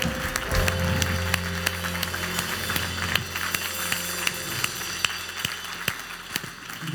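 An audience at a Christmas church service applauds God steadily for several seconds, a dense wash of clapping over a sustained low hum of held notes, with no one speaking.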